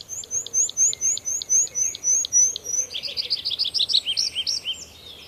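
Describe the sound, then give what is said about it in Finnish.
A tree pipit sings alone and clear: a rapid string of repeated high chipping notes that shifts into a quicker, more varied trilling phrase, over a faint background hiss. “Viikon luontoääni: Metsäkirvinen”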